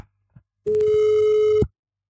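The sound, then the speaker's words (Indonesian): A single steady electronic phone ringing tone, as a call is placed to a caller, sounds for about a second, a clear sustained beep with a flat pitch, preceded by a faint brief click and followed by silence. “Sudah berdering?”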